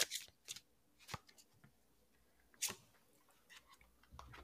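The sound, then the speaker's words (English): Tarot cards being shuffled before a card is drawn, a series of crisp, papery riffles and snaps at irregular intervals, fairly quiet, with no voices. “So I'm going to be shuffling and then uh you just tell me when to stop and we'll see what card pops out”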